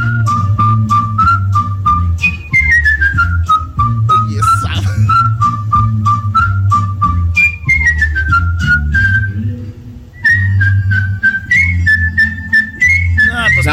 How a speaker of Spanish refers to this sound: Escucha, este. Eh. Este es silbada. Ajá.